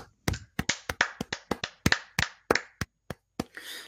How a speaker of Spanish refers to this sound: Eh, es verdad, son las 8, vamos a aplaudir primero.